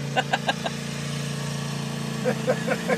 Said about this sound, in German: Knattert dünn. Mäht er jetzt, achso, das schon, der mäht jetzt der, unsere Wiese hier. Der mäht jetzt den Asphalt hier. Was für ein Typ.